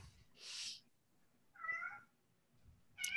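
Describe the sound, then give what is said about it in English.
A cat lets out a clear meow, followed moments later by the start of another, with a soft breathy rush just before the first. No one speaks. “Look, so does the cat. The cat the, agrees.”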